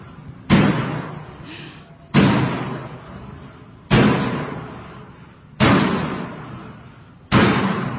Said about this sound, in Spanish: Esto es en base en el video que pusimos, donde está la morgue y se abre y se cierra una puerta sin que nadie lo, la esté empujando en la morgue. Escuchemos los sonidos. ¡Qué feo!